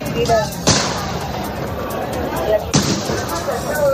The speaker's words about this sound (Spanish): es un vehículo blindado de la policía derribando la puerta del campus.